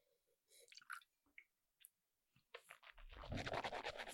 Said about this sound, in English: I don't have any bourbon and coke left, so if we're going to drink to this, I need to pour a little bit of bourbon.